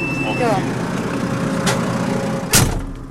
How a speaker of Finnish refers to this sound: No nyt lähti moottorit jylläämään.